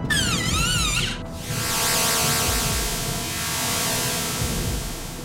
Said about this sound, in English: Once they approached the entrance, a mechanical arm exited the wall and scanned his eyes.